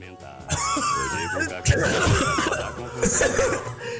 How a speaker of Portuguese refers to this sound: Se engasgou e tossiu, acertou.